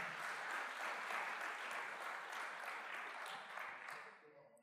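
A church audience applauds the Lord (Jesus) during a service, a dense wash of many hands clapping at an even, sustained loudness before thinning and fading out near the end.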